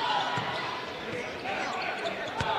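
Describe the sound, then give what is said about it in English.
A basketball is dribbled on a court during a game as a player takes a couple of dribbles before passing, a few low, irregular thumps rising over a steady wash of crowd noise and murmuring voices. “Kalen takes a couple of dribbles, finds Harrington.”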